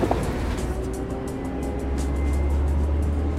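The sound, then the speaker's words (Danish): Steady low rumble of an ordinary yellow commuter bus driving along, heard from inside, with a constant engine drone and faint rattling and road noise overhead; no one speaks. “Vi skal derfor ud og køre med spionbussen. Egentlig en ganske almindelig gul bus, men dens passagerer, i hvert fald nogle af dem, har jeg hørt er spioner.”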